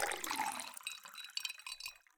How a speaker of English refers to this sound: I have a clear drinking glass here. I'm going to fill it up with ice and water.